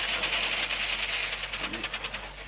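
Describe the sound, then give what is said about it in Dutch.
An overheated car engine knocks hard, a rapid, steady clatter of pulses over a dense mechanical rumble, continuous and fairly loud throughout, with no voices. “Het hart van de automachine klopt zeer hevig, o oh vrouw. Het is te heet geworden.”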